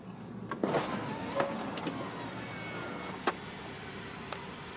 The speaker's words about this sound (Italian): con una sequenza perfetta, il motore elettrici e la parte idraulica che collaborano perfettamente all'operazione ed ecco abbiamo la macchina scoperta.